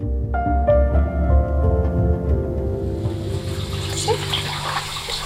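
Warm water runs steadily into a bathroom sink, a continuous rushing splash that grows brighter and fuller as the basin fills, with a faint murmur of background sound at the start.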